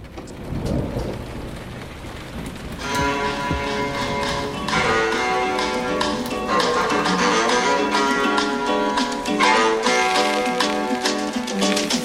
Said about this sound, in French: Une chanson qui nous fait voyager et qui nous donne tous envie de partir